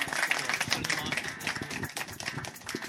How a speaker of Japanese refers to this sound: はいじゃ最初に手を挙げた人結構ね勇気いるからまずそれだけで拍手しましょうありがとうございます